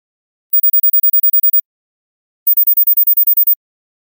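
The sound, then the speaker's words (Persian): A piercing, very high-pitched tone, said not to be heard by people over thirty and only by younger people, pulses in two bursts of about ten rapid beeps each, separated by a short silence, with no voices. “من الان صدایی رو پخش می کنم که افراد بالای سی سال اون صدا رو نمیشنوند و فقط جوانترها میشنوند گوش بدید”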